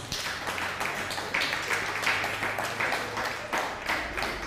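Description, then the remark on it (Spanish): A crowd applauding steadily for several seconds, a dense, even wash of many hands clapping at once with no voices standing out, holding a fairly constant loudness throughout. “Un fuerte aplauso a Costa Rica también.”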